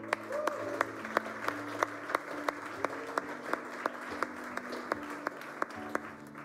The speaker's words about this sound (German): Und wenn du heute das allererste Mal da bist, der Applaus ist für dich.